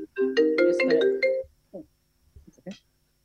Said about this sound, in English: Sorry. Just a phone.